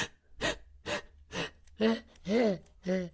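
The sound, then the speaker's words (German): A person imitates the quick, shallow panting of breath during orgasm: about seven short breaths in a steady rhythm, the later ones turning into voiced gasps. Fairly loud, with no speech. “der, der Atem wird flach und hechelnd.”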